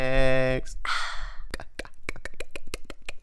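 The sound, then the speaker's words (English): A voice imitates Lego bricks snapping together: a brief hum and a breathy rush, then a quick run of about ten sharp mouth clicks, fairly loud. “That's me putting bricks together.”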